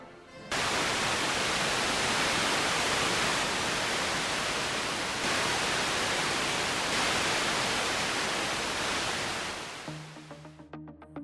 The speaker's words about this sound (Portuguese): o público brasileiro vê o surgimento do chuvisco na tela e a morte daquele que foi o canal de TV pioneiro em nosso país.